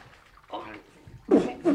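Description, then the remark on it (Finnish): Cold water splashes down in a few quick, noisy, fairly loud bursts, the last two in rapid succession like a bucket being emptied, as cold water is poured over a captive man on a boat to revive him. “Kaatakaa kylmä vesimiehen päälle, jotta hän virkistyy.”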